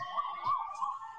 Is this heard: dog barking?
no